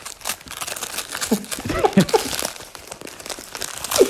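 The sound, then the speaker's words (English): Masking tape being torn off a wrapped present, with irregular bursts of ripping and crinkling paper throughout, moderately loud, while brief voice fragments come and go underneath. “Well, I'll fill, but you'll be able to hear him tearing off the masking tape of the present.”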